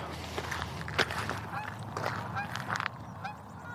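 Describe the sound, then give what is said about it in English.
A flock of geese flying low overhead in a V formation honks, with overlapping calls repeating irregularly over a steady low background rumble. No one speaks. “Nice formation of geese there.”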